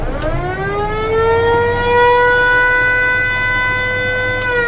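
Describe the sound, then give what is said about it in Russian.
A river passenger boat casting off gives one long, loud horn blast. Its tone swells slightly in pitch at the start, then holds steady for several seconds over a low engine rumble. “Отчаливаем. Даем гудок.”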